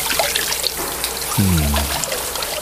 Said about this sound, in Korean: 어, 물소리인데요. 목욕탕에서 물 끼얹는 소리랍니다.